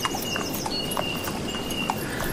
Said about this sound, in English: Horses are calm, just on a steady trot as we ride across the plains